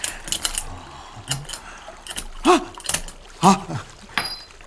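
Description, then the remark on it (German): Metallic scraping and clicking as a key is worked with a bent wire and pushed out of a lock, then drops with a light clink, with brief muffled vocal sounds in between. “Hoffentlich ist der Schlüssel auch auf dem Shirt gelandet.”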